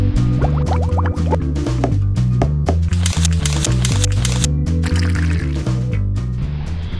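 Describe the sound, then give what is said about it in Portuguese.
A short, loud musical intro jingle for a weekly channel about network marketing plays on its own, with a steady repeating bass line, bright rhythmic hits and quick rising tones, without any talking. “Vamos para a vinheta.”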